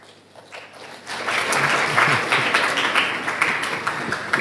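An audience bursts into applause, starting softly and swelling after a second into a dense, steady wash of many hands clapping, holding strong to the end with no voices.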